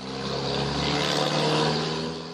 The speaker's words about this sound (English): Some might be good, like birds chirping, but others might be less enjoyable, like a truck rumbling by your house.